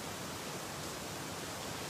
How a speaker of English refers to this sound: Lord God, the sound of the rain reminds us of your blessing.